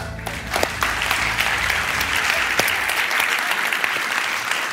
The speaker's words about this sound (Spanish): Gracias por este espontáneo aplauso.